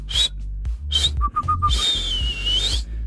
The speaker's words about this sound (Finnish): Kolmas vihellys, peli poikki